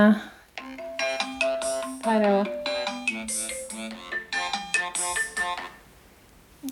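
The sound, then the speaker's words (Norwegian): A telephone ringback tone, heard while placing a call to neighbours, plays as a quick series of bright, melodic electronic notes, fairly loud, fading out near the end, with a brief voice speaking at the start. “Etil gjør seg klar til å ringe naboene til Espen.”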